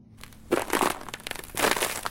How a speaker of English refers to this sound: Crunch, crunch, crunch! His feet sank into the snow.